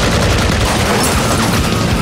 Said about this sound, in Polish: More explosion.